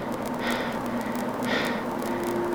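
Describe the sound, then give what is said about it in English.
Two slow, heavy breaths from a man, about a second apart, come through a steady hiss and low electrical hum over a crackly radio connection; he gives no answer and no one speaks. “There was no answer just his breathing.”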